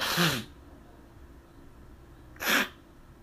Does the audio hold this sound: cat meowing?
no